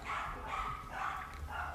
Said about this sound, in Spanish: los perritos de la calle están un poco saltados